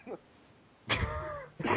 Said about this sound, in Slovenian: Meni se kašlja, ker rabim cigaret.